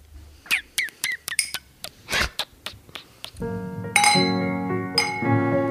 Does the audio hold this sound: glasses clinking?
yes